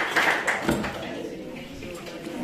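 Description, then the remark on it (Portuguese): A group claps for the Lord at the close of a prayer, in a quick scattered burst of sharp, bright hand claps during the first second, then the clapping fades under a murmur of voices. “Aplauda o Senhor, vai em paz, o Senhor é contigo.”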